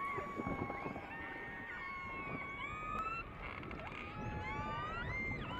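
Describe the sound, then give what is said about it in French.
Orca calls recorded underwater in the fjords: many overlapping whistles and pulsed squeals sweeping up and down in pitch, some crisp upward chirps, over a steady low rumble of water noise throughout. “On entend effectivement ces vocalises.”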